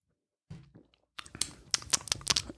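Wet lip smacking and mouth clicks in a quick, uneven cluster, preceded by a brief soft vocal sound, with a faint crunchy, crinkly texture like someone smacking while eating.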